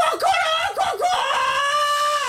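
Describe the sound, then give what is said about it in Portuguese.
A human voice imitates a rooster's crow: a few short rising yelps followed by one long, loud, sustained call, alone with no other talk. “Começamos pela manhã com o som do cacarejar dos galos.”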